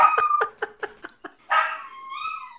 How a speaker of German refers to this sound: Ja, der, der jault immer mit mit der Sirene.